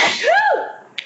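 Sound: sneeze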